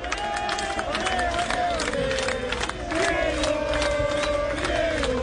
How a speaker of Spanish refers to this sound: La ambulancia sigue sin salir de La Plata y de fondo los hinchas de gimnasia que gritan por Maradona.